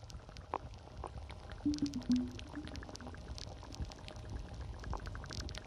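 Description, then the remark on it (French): Meltwater from a melting glacier trickles steadily, with scattered crackles and tiny drips over a low rumble and a brief gurgling burst partway through. No voices. “Il se trouve que la période où on peut entendre ce type de son de la fonte, qui sont plutôt des sons d'été, avant elle allait de, mai à septembre, euh, et maintenant elle va euh, de début avril euh, à fin octobre.”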